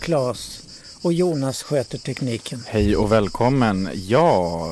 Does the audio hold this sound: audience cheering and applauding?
no